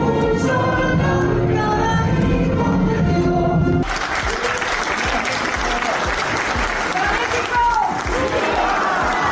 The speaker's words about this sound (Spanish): Después de que tomara protesta a las nuevas personas mexicanas, … cantó el himno nacional y recibió aplausos al final de su interpretación.